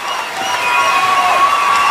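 An audience in Badajoz breaks into steady applause for a guest, mixed with cheers and whoops: a dense, continuous wash of clapping and raised voices that stays loud throughout.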